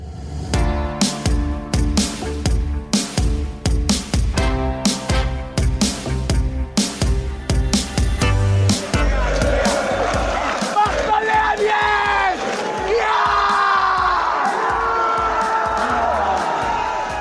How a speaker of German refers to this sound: So klang sie, die Aufstiegsfeier des TSV 1860. Das war vor mehr als einem Jahr und die 60er schafften es damals von der vierten in die dritte Liga.